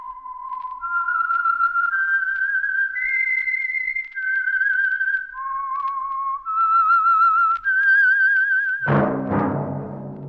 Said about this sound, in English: That whistle is your signal for the Signal Oil Program the Whistler.